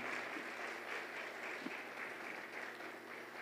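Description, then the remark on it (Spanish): A church audience on a Sunday applauds steadily for the Lord, a dense wash of many hands clapping at an even level for a few seconds with no voices standing out. “Dale fuerte la plaza al Give Señor.”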